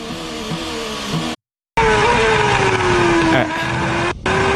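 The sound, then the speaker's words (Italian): A racing car's V6 engine roars loudly, its pitch climbing and falling as it revs through gears, with brief cuts in the sound between bursts of acceleration. “Aspetta, questo è già il V6, aspetta che ho sbagliato.”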